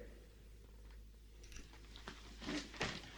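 Soft chewing with a few moist crunching bites as someone eats, irregular mouth noises over a low steady hum, no talking.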